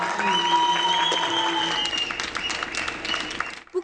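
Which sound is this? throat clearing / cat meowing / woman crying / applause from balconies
applause from balconies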